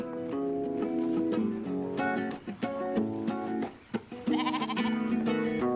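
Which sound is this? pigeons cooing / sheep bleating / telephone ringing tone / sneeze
sheep bleating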